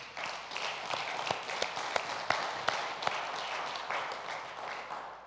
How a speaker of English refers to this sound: By the way, if you enjoyed that worship, how about a round of applause just to honor them?